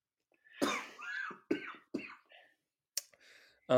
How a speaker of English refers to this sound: Just got a little cough. Getting out of a had a little flu situation recently.